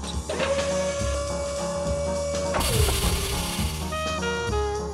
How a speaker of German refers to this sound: Und von da aus geht's zum Zermahlen. Dafür schmeißen wir das Zeug in eine Maschine.